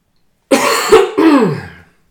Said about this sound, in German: So, der Huster ist noch drauf.